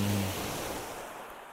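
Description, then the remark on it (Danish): Small waves wash steadily against shore stones, surging about 2-3 meters up over the stones and trickling back down, a soft continuous hiss of water that fades slightly toward the end, with no voices. “Men der er lige tilpas bølger til, at de lige slår op mod stenene.”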